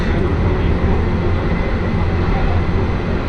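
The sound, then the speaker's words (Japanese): Steady, loud rumble of an Akechi Railway train running from Akechi toward Ena as the 10th-anniversary Super Shimashima service, with a continuous low-frequency drone and no pauses over the few seconds. “耳で楽しむ鉄道旅 明知鉄道 明智→恵那”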